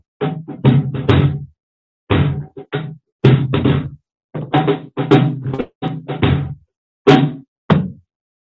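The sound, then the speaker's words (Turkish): A seated person's hand raps and slaps on the wooden stool they are sitting on, in a lively, irregular rhythm, clusters of sharp knocks and thwacks separated by brief pauses, with no talking. “yani benim e, oturduğum yerde ses veren mekan. Yani özel bir enstrümana gerek yok. Kendi bedenim ve elimin uzandığında ses çıkarabileceğim şeyler.”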